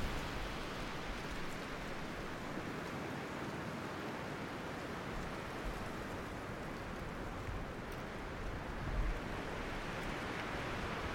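A steady, unbroken rush of sea air sweeps across flat coastal sands, a broad hiss holding an even level throughout, with a faint surf-like wash and no voices.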